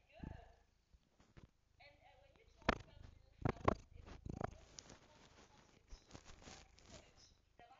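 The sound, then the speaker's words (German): A cat purrs in a steady, low rumble that runs throughout while its owner relaxes with it, interrupted by a few sharp rustling bursts of handling or movement near the middle. “Und ich chill hier gerade mit meiner Katze. Sag mal Hi.”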